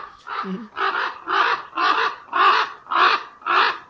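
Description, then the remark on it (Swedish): A common raven gives its classic series of about seven hoarse, croaking calls, evenly spaced and fairly loud, with no other voices present. “Och så låter de med det här klassiska korplätet.”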